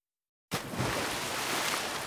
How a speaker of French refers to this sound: Pataplouf Il est si lourd qu'il tombe dans l'eau et se noie.